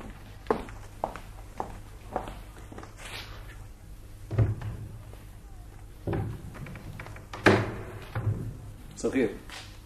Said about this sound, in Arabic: سامحني يعني ماشي باش نحل لها الباب